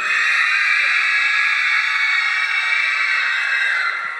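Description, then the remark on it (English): A loud, sustained scream fills the whole clip, shrill and piercing, holding steady for about four seconds before easing slightly at the end, with no talking over it. “she still screams louder than that.”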